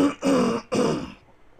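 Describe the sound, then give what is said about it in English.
A fairly loud cough in two or three quick rasping bursts, the last trailing off, heard on its own with no talking. “not not the coughing noise”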